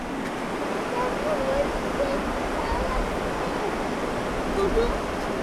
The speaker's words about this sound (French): Oh, la rivière Le son de la rivière On va chercher le son de la rivière Et bon, eh ben, on va essayer de s'approcher un peu plus. Bah ici par exemple par la fenêtre.